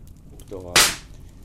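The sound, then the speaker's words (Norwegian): A single loud, sharp pop from a burning log in a large old open hearth, in a house overlooking Voldsfjorden, Norway, with a brief crackling tail and a faint voice murmuring just before it. “sånne smeller blir det ofte når en fyrer opp i, i, så store gruer som er litt sånn her Dovregubbens halvdimensjoner over.”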